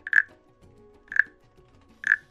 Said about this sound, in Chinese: 那第三个乐器它长得很可爱，它是一只蟾蜍，